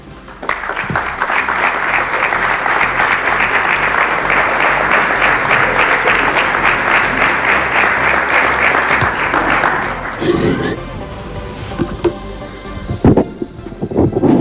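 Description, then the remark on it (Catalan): A crowd claps loudly and steadily for about ten seconds, a dense sustained wash of applause, which then thins into scattered claps and room noise with a few thumps. The applause is for local sports clubs and athletes in Ripollet for the season's successes. “I mentre ells pugen, un aplaudiment per tots vostès merescuts per aquests èxits en aquesta temporada.”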